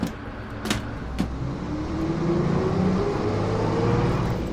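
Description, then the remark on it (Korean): A bus engine rumbles low, its drone rising steadily in pitch as it pulls away, with two sharp clicks near the start and no one talking. “오메, 오메, 이 버스가 나 버스네.”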